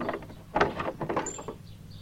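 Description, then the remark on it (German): A house's front door creaks open with a series of rough, grinding groans and a brief high squeal partway through, moderately loud, with no voices. “Eine noch viel größere Herausforderung steht euch jetzt gleich bevor, denn ihr hört die Haustür knarzen.”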